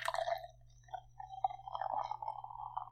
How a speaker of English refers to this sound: Ooh, you know what I'm going to do? I'm going to go get myself a glass and pretend I'm drinking like draft strongbow. Do it. Let me just decant my cider.